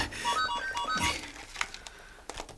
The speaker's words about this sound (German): Oh, mein Handy.